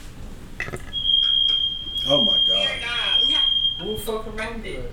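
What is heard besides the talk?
fire alarm going off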